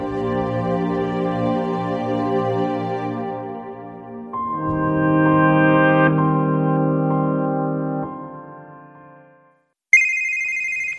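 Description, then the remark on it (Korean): A mobile phone ringtone plays a loud, steady electronic melody of layered sustained tones that shifts pitch in sections, pauses briefly, then resumes with a bright, higher chime at the end. “어, 어 전화다.”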